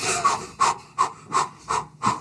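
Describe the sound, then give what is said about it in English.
A person imitates rapid, sharp breathing, about six quick breathy huffs in an even rhythm, fairly loud, with no words spoken, mimicking the fast breathing they do when the shower water is switched to fully cold. “And it's usually like, and I have to start breathing fast because mm-hmm.”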